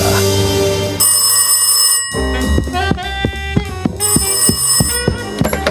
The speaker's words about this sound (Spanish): Cada vez que sonaba el teléfono, todos acudíamos a la llamada.